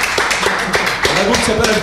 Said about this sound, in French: Et c'était beau, les gars. Bravo. Moi, je vous applaudis.